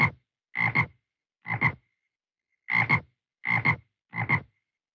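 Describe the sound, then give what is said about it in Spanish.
A frog croaks six times, each call a quick doubled rasp, in two sets of three with a short pause between. The croaks are clear and alone, with no talking. “La rana le gusta nadar en el estanque. Rana.”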